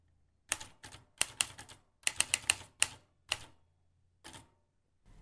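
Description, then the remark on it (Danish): Typewriter keys clack in uneven bursts as a mother types at home, sharp percussive strikes clustered in quick runs with short pauses between, fairly loud, with no voices present. “Rystende krøb den lille pige til sidst i seng igen og faldt om sider i søvn, mens lyden af skrivemaskinen værkede som små hammerslag i det lille trætte hoved.”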